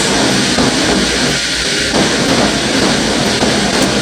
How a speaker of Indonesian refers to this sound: sorry kalau ada suara hujan ya